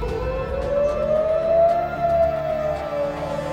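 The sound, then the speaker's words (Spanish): A wailing air raid siren in Israel at 11 pm on a Saturday night in 2023 holds a long, steady tone that slowly rises and eases back in pitch over a low background rumble, with no voices. “23 horas, alarmas.”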